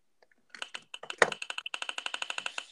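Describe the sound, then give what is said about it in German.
A prize wheel is spun, its pointer ticking off a quick, steady run of sharp plastic clicks, with a few louder knocks at the start. No one speaks. “Ich drehe, ihr hört's.”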